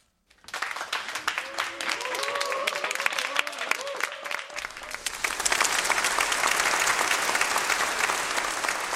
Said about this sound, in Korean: 아, 예, 이렇게 박수 보내주시고요. 네, 박수 소리 참 좋네요.